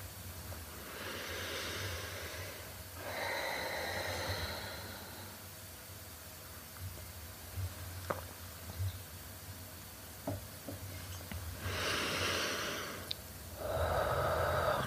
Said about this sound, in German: kannst, wenn du magst, auch hörbar ausatmen, ausatmen und ein wenig länger ausatmen als ein. Und dabei mit jedem Ausatmen ein wenig mehr bei dir selber ankommen.